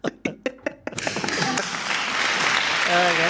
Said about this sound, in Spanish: Pero no has dicho que no venga gente, que hace toda esta gente aquí aplaudiendo.